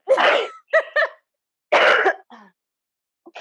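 A person with asthma coughs hard several times in close succession, harsh bursts with a throaty, raspy clearing, then pauses before a final shorter cough-and-clear. Loud, with no talking.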